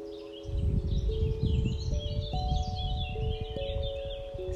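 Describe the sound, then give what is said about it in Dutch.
Small birds chirp and whistle in quick, scattered bursts, fairly faint, layered over a steady sustained musical drone and a low rumbling background. “Hoor de vogeltjes fluiten.”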